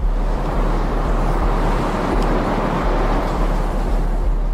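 Steady, roaring wind blows continuously in high mountains with stone walls and snowy peaks, with a deep low rumble and broad hiss, loud as if buffeting a microphone, with no voices.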